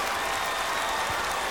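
Audience applause fills the moment, a dense, steady wash of many hands clapping at an even loudness, with no voices standing out above it.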